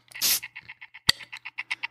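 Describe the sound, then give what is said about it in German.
An electric bottle opener with nearly dead batteries opening a bottle of beer: a brief hiss, then a steady string of quick, buzzy pulses, about a dozen, interrupted by one sharp click, fairly loud. “So, das, was ihr hört, ist ein elektronischer Flaschenöffner, bei dem die Batterien fast leer sind.”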